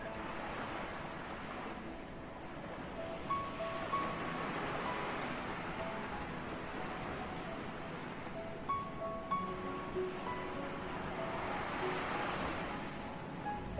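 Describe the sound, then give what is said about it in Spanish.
Ocean waves wash onto the shore in slow, rolling swells, each surge building to a broad hiss and then receding. Steady surf with no voices. “darte un respiro,en la Orilla DEL MAR🌊🌊🌊”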